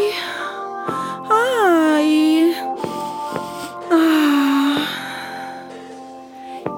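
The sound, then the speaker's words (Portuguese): Someone breathes in an exaggerated, heavy way: loud, drawn-out breaths with voiced gasps and wheezy, moaning tones rising and falling, repeated several times with no talking. “Eu não tenho vírus, estou respirando muito bem. Escuta aqui.”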